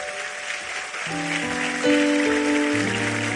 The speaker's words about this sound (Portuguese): E chegamos ao final de 2019. Eu quero que você aplauda ele, porque ele é bom.